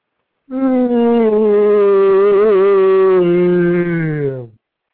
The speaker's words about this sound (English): Sorry, that was my yawn from a weekend of doing absolutely nothing constructive.